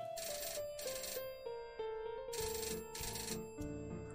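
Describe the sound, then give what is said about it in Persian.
A telephone rings with a bright electronic ringtone, a repeating melodic pattern of chiming bursts in quick succession, loud, with no voices over it. “چند روز بعد باز تلفن شد”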